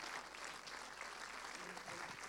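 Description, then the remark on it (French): A crowd applauds steadily to welcome director Guillaume Renusson and Denis Ménochet, dense overlapping claps forming a loud, continuous wash of noise with no pauses throughout. “Donc je vous demande d'applaudir euh, et d'accueillir”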